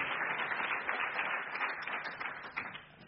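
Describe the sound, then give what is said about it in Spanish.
A church audience breaks into sustained applause for God, many hands clapping in a dense, crackling wash that holds steady for about three seconds before easing slightly at the end, with no voices over it. “Eso merece un aplauso para Dios, porque es el Dios de Israel, nuestro Dios.”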